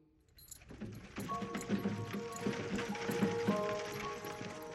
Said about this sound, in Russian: Телега с вином ехала медленно.